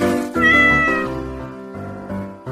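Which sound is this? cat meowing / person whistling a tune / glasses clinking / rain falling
cat meowing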